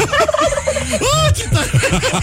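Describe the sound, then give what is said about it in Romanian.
A person imitates a turkey gobble, a loud, rapid warbling burst of throaty chirps, with a rising swoop in the middle of the short call. “Știi să faci ca curcanul?”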